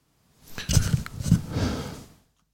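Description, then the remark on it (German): A single sneeze erupts, a loud, noisy burst with a sharp snorting attack that trails off into a breathy exhale over about a second and a half. No one speaks. “Gesundheit.”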